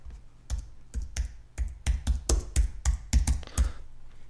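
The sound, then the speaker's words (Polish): Rapid keystrokes on a wireless computer keyboard, about a dozen sharp clicks in an uneven typing rhythm, moderately loud, with no voices. “Bezprzewodowa klawiatura ma to do siebie, że się rozładowuje często.”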